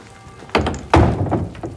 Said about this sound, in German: Der Rudi Ritter schließt das große Holztor wieder ab.